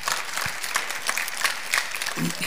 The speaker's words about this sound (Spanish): lo que sí le aseguro es que aquí es gente muy inteligente, gente muy sabia, gente conocedora de la Escritura, llena del Espíritu Santo, lo recibe a usted con un aplauso.